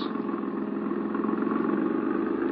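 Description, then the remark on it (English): A car engine runs steadily at an even level as the car is driven through a harbor district, its low mechanical drone constant throughout with a faint rhythmic pulsing and no voices. “Hit the gas a little harder. See if you can shake that car behind us.”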